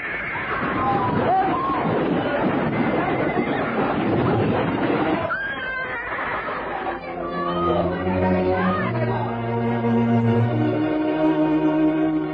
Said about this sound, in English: Gracious, what's this? Carriage and horse out of control.